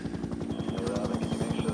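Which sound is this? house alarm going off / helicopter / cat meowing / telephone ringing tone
helicopter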